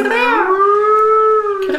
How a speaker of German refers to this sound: Das ist eine Möwe.